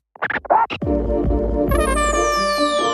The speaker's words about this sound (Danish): Jeg har fået høretelefonerne på. Kan jeg få mit beat?